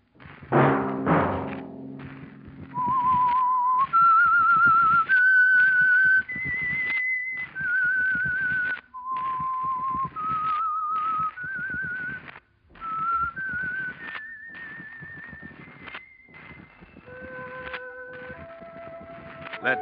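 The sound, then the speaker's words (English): A lone whistled melody of a dozen or so sustained notes, the signal tune of the Signal Oil radio program The Whistler, rising and falling in short phrases with brief pauses, heard clearly after a soft thump at the start. “That whistle be your signal for the Signal Oil program, The Whistler.”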